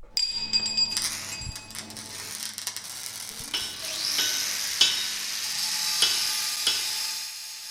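A noisy workshop in the youth prison in Siegburg: a steady machine whine and hiss fill the space while sharp knocks and metallic clatters of sawing and hammering ring out every second or so, with no one talking.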